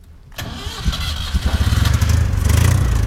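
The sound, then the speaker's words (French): The engine of an old, battered Citroën 2CV with no doors, a 2CV6 engine coupled to a short 2CV4 gearbox, cranks and catches after a brief silence, then settles into a rough, rapidly pulsing idle with a low, throbbing rattle that grows steadily louder. “Je monte à côté de mon père dans cette vieille deux chevaux déglinguée, sans porte et sans contrôle technique.”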